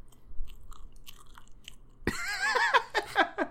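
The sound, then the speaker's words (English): Close-miked, mushy chewing of a chocolate, marshmallow and coconut pie: a couple of seconds of faint mouth clicks, then loud, wet squelching bites and smacks that repeat in an uneven rhythm right up against the microphone. “Well, okay, at least make some ASMR noises into the mic. It's not really, it's like a mushy sound.”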